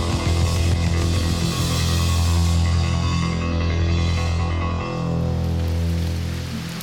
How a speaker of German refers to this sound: Ein junges Paar wartet am Ufer. Es regnet leicht. Der braune Fluss zieht zügig an ihnen vorbei. Er markiert die Grenze zwischen Thailand und ihrer Heimat Myanmar.